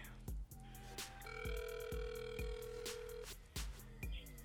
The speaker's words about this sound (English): I don't know if that was my phone.